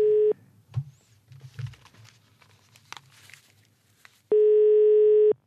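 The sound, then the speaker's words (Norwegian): A telephone ringback tone while calling a grandmother: a loud, steady electronic hum cuts off, then returns about four seconds later. Faint rustling and handling noises fill the gap, with no talking. “Vi ringte henne for å høre hva hun syns.”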